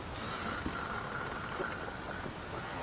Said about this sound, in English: It's still actually going on in the background because, you know, got some ship creaking noises.